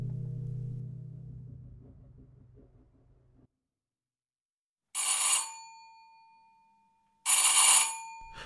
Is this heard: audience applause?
no